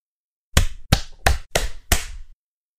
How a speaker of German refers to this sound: Jetzt klatschen. Yes.